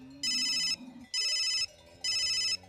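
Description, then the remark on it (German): A mobile phone ringtone trills in three bright, even bursts with short pauses between, clear, over a faint low background hum. “So wie deine Mutter dich heute auf dem Handy anruft, wenn du nach Hause kommen sollst, so haben damals die Hirten ihre Kühe mit dem Alphorn gerufen, damit sie heimgehen in den Stall oder auf die Weide.”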